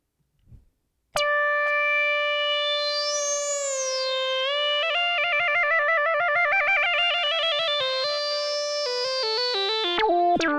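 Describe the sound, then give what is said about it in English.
A vintage analog synthesizer plays a sustained, buzzy tone rich in harmonics, holding a steady note before stepping through a quick sequence of shifting pitches, loud and alone after a short low thump. “What about old analog sense sounding?”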